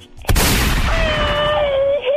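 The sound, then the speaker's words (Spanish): A voice imitates machine-gun fire: a sudden, loud burst of harsh rattling noise that holds for nearly two seconds, with a thin whining tone rising through the latter half. “Échales un grito ametralladora, chamaco.”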